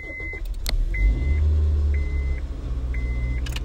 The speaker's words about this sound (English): We're driving home.